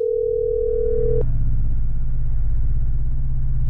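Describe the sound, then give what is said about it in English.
A telephone ringing tone sounds once as a steady, fairly loud electronic tone for about a second, cut off by a click, followed by a low continuous droning rumble with no voices. “As the phone rang, my throat tightened from nerves as a hundred thoughts of how this speech was going to sound ran through my head.”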